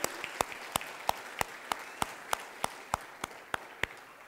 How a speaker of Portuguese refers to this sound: Só quem vive o melhor de Deus, aplaude a Ele, aleluia.